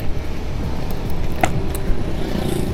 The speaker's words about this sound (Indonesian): ah, pasti di beberapa dari kalian ada ya yang uh, mempunyai hobi yang sama hobi yang keliling motor gak jelas di malam hari ya by the way sekarang malam hari di habis isya di jam setengah delapan lah